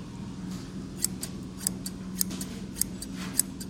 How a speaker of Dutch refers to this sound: Ik zal hem even oppoetsen voor eh, dit is 1964, deze schaar.